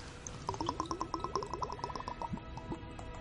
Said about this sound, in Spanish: Destapa el frasquito de suerte líquida y bebe.